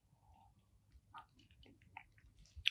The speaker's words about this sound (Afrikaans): So ja, ek gaan solank eh, 'n uh, ou slukkie vat van hierdie whiskey. Cheers.